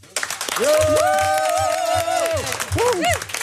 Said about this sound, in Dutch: Nou, dat was het meest vitale applaus wat ik in maanden heb gehoord. Dus volgens mij zit het hier bij Accolada wel goed.